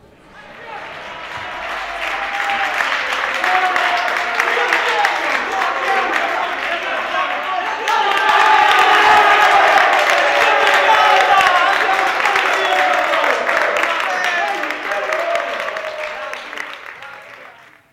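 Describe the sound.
A crowd applauds and cheers for about eighteen seconds, a dense, steady roar of clapping mixed with shouting voices that swells louder partway through before fading at the end.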